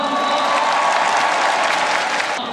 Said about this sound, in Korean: 선배들 앞에서 힘차게 공을 뿌리자 환호가 터져나왔고 선수단의 따뜻한 격려가 이어졌습니다.